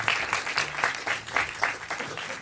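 A live audience applauding at a live event at the Astor in Hannover, a dense, steady wash of many hands clapping at once, full, with no one speaking over it.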